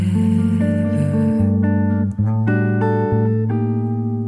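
An instrumental passage of a French song with sustained, synth-like chords that shift every second or so, steady and fairly loud throughout, with no singing or talking.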